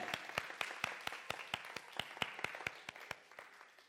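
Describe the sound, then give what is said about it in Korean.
An audience applauds in thanks to God, with many hands clapping together in a steady, quick rhythmic beat over a dense wash of scattered claps, fading slightly at the end. No one speaks. “이 시간 우리 한번 하나님께 감사의 박수를 한번 올려드렸으면 좋겠습니다.”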